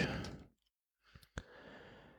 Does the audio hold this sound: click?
yes